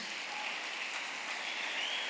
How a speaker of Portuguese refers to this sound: Olha, temos ali, ali, ali. Uma salva de palmas para esses queridos.